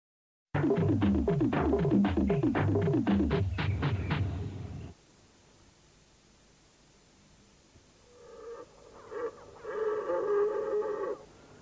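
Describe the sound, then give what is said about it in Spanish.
A red deer stag roars in a burst of deep, grunting bellows in autumn in the Scottish Highlands. After a pause, fainter roaring answers. “Un ciervo rojo en otoño, en las tierras altas de Escocia.”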